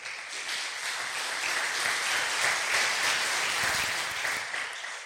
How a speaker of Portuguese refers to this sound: Aplausos para Jesus.